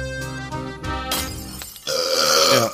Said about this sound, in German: Äh, ich muss mich auf den Rülpser entschuldigen.